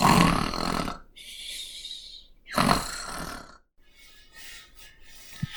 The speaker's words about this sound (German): Sie schleicht langsam in die Küche und hört ihren Onkel laut schnarchen.